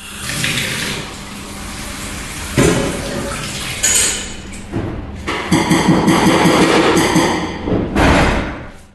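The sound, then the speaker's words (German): Kitchen sounds with a tap running steadily, a broad watery hiss, punctuated by several dull thuds and clinks of dishes or pots being handled. No one speaks. “Wir haben zudem noch Küchengeräusche, falls mal einer der Kollegen oder ein Partner reinkommt.”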